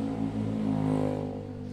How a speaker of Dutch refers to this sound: Prima, zo'n scooter. Maar waarom moet er dan weer zo'n knalpijp op? Want hoe harder, hoe meer geluid, hoe beter.